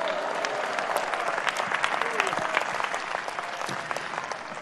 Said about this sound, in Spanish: Dale un aplauso al Señor, a su nombre, gloria.